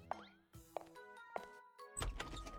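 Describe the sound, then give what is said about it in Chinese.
Three sharp knocks on an office door, evenly spaced about half a second apart, each with a brief ringing tail, followed by a burst of louder, rougher noise. “王峰连忙准备离开，不过却就是在这时，砰砰砰，敲门声音响起。”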